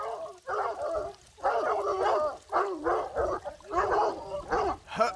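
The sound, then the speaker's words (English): Several hounds bark and yelp excitedly in overlapping bursts, loud, with a few brief pauses between volleys of barking. “Stupid dogs, get back. get back. Back you come.”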